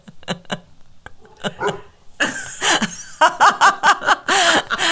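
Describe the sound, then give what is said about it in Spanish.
A shepherd dog barks repeatedly, starting with a few short yaps and building into a rapid, loud volley of sharp barks with brief gaps between them. “No, es mi, perro que está cada vez más rebelde.”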